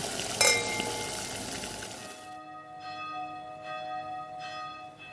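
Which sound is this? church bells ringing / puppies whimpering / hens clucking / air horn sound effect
church bells ringing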